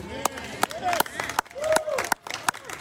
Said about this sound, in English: I knew I'd get some applause. but I'm really not saying that for the benefit of those who, who clap, but for those that are still wondering.